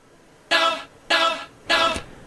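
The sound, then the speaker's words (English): Short new intro music built from three loud, evenly spaced horn-like stabs, each about half a second long with brief pauses between, with no voices. “There's the music. All right, this is my first time hearing Throwing Stones with the new intro music.”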